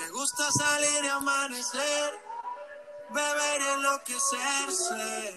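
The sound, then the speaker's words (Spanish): An upbeat Spanish-language pop song plays loud, with a singer's melodic vocal lines carried over a steady, busy backing track throughout, dipping briefly between phrases. “Algo de …, de su último disco, titulado …. Esta rola se llama … y suena así.”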